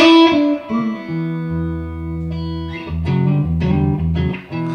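A distorted electric guitar plays an intro riff, starting with a bright bent chord that rings out, then sustained low notes and a run of picked, gritty phrases. It is loud and alone, with no talking.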